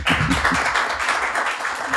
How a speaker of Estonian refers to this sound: inimesed, kui te veel ei ole aru saanud, siis äh, meiega istub äh, legendaarne Eesti telemaastiku legend Peeter Võsa ja ma arvan, see väärib ka ühte veel suurt aplausi.